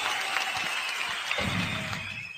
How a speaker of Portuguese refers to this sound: Olá, quem merece? E os nossos aplausos vão para.